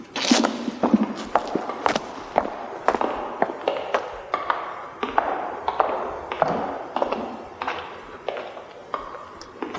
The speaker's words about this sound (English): Cleaver, you can drop in a, the sound of those clip cloppy shoes now. Right now.